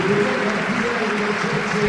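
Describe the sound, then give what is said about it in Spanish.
A large stadium crowd on its feet gives a sustained ovation for those affected by the Campanar district fire, the emergency services and the building's doorman: dense, steady clapping and roaring cheers at a constant loud level throughout, with a faint held tone running beneath the noise. “Todo me estalla en pie, rompe en una ovación espectacular.”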